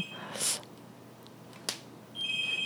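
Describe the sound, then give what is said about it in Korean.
A phone rings with an incoming call: short bursts of a high electronic ringtone at the start and again at the end, with a brief click between, fairly quiet and with no talking. “갑자기 느닷없이 어. 이 시간에 전화가 오는 것도 참 신기하네요.”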